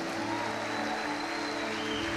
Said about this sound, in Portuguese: Fique de pé, nós queremos honrar vocês. Aplauda bem forte.